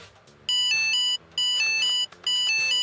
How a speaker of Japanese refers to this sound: そうちょっとね効果音が出るこの iPad がねいろいろあるからねちょっと試してみたくてさ、はい、あちょっといろいろちょっと音色聞きたいです